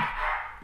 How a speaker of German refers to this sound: Entschuldigung, den Hund, den ihr im Hintergrund hört, das ist der Hund meiner Mutter, der ist bei mir.